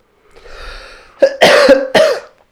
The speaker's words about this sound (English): I'm already coughing from that.